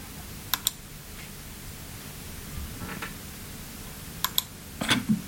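Sparse computer keyboard keystrokes as "Don Juan" is typed to search a sheet music collection for Mozart's Don Juan: a couple of sharp clicks, a pause with faint rustling, then two more clicks and a short flurry of taps near the end, fairly quiet.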